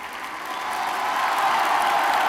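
A large, enthusiastic audience applauds loudly and continuously, a dense thunderous roar of clapping that swells slightly and holds steady throughout, with no voices standing out.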